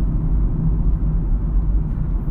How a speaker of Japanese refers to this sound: これは一体何なんだいこのこの乗り物は何だいどうしましたいきなり車だよこれはこれがこっちの世界の乗り物か車は初めてかい